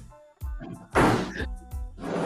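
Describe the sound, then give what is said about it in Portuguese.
A window is pulled shut with a few heavy thunks and a brief sliding scrape, the knocks coming in quick succession before the frame settles closed. “Cara, tem um cachorro lá no fundo, vou fechar a janela.”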